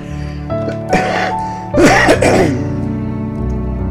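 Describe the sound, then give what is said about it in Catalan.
A short cough, then a louder, harsher burst of coughing about a second later, with a steady tonal hum running underneath and no talking. “La tos era eh, per posar el punt final.”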